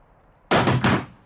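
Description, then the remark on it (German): An Uzi submachine gun hits the floor with a loud thud, then a second heavy clatter right after as it settles. No voices. “Lassen Sie die Uzi einfach zu Boden fallen, wenn Ihnen unwohl ist.”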